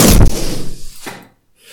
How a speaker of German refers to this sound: Du lässt den Luftballon einfach wegfliegen und dann fliegt die ganze Luft einfach weg. Ich mach's jetzt mal, Achtung, und achte darauf, das macht so ein lustiges Geräusch und dann ist einfach alles weg.